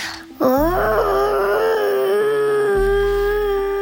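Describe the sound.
A person imitates a blue whale call with one long, loud, wavering moan that swoops up at the start and then holds a steady mid-pitched tone, over a low rumbling hum.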